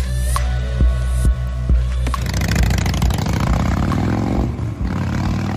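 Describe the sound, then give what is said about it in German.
A motorcycle engine idles with a steady, throbbing low rumble, then revs up around two seconds in and keeps growling loudly with a rough, continuous roar. “An was denken wir, wenn wir diesen Sound hören? Motorradfahren?”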